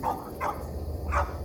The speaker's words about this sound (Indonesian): nggak ada angin nggak ada apa tiba-tiba banyak anjing yang pada menggonggong